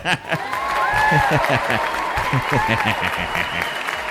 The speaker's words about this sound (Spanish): ¿Quieres, ¿Quieres un aplauso? Vamos a poner un aplauso. exactamente. sí, la muchedumbre, por favor.